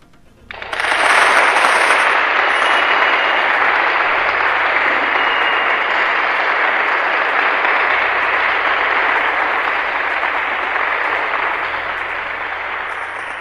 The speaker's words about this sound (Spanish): Aplausos, por favor.